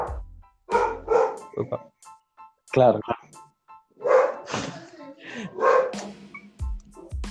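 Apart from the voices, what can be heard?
dog barking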